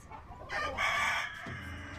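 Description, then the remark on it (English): A rooster lets out a single loud crow, followed by a bit of low clucking from chickens, with no voices present. “Brought in to fight off the mutant chickens, and now it's a horror free for all.”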